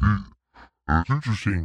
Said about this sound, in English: I'm in the voice changer. So, if I wanted to get a scammer on the line, I could do this. I could just change the pitch of my voice all the way down